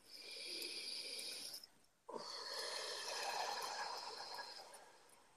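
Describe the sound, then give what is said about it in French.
A deep breath taken during a guided group exercise: a long, breathy inhale lasts about a second and a half, breaks off in a brief pause, then gives way to a longer, steady exhale of airy hiss. No one speaks. “Alors, une respiration.”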